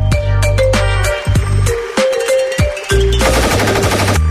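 Bursts of rapid gunfire crack over a thick, booming musical backdrop in a gangster-style phone ringtone, the shots arriving in quick clusters with a loud, punchy sound, no talking.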